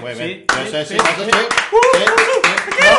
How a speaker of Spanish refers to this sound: Bueno, y de aquí, de verdad, Samsung, te damos un aplauso americano, ¿eh? A mí. Vamos porque... Vámonos. Esto no es un aplauso americano. Esto es un aplauso aflamencado.